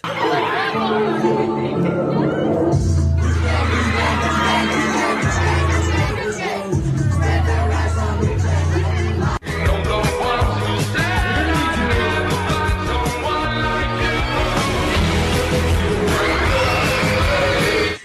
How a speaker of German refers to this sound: Komm, wir hören es schnell rein. Ihr müsst es schnell hören, wie die Leute ausrasten, weil die einfach schnell drei Sekunden das Maul bewegen.